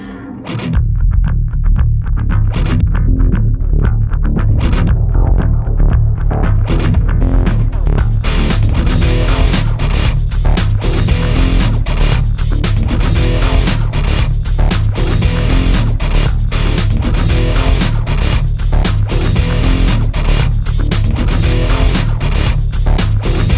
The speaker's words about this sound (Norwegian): Det var jo uh, året da PSP seila høyt, og der var det sikkert mange som spilte eh, Formula One 2005 på PSP. Oi. Hør dette funky, uh, tøffe rock-greiene her, da.